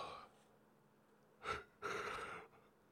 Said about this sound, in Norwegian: Da det, en gjesp.